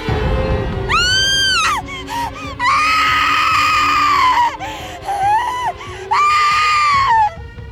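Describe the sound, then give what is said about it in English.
A woman, Glauce, screams in agony as her skin distorts and her flesh reddens and bubbles after she puts on a robe: several long, piercing, wavering cries in a row, loud, with short gasping breaks between them and no talking. “She screamed.”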